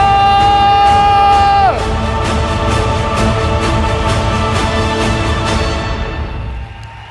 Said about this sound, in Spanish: que darle el aplauso más grande de la vida al Rey.